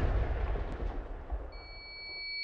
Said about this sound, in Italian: Sì, ma eh, questi non sono petardi, so- sono ordigni.